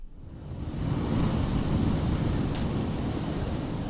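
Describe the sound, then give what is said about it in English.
A deep, steady roar of giant ocean waves swells up within the first second and then rolls on continuously, loud, with a hissing wash over a heavy low rumble and no voices. “The Pacific Islands the focus of most of my research over the past 30 years, has stories about past natural events, massive eruptions and earthquakes, giant waves, for instance,”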